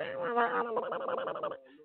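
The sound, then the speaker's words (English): A person imitates a pig being chased, with one drawn-out, wavering squeal, loud, lasting about a second and a half before cutting off into a brief, fainter trailing note. “Like you try to get close up on the pig, and the pig be like”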